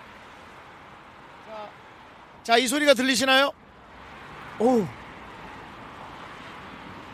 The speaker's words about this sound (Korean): 차들이 막 지나가는 소리 들리시나요? 네 들립니다. 그렇습니다. 지금 양화대교 위는 차들이 계속 지나다니고 있습니다.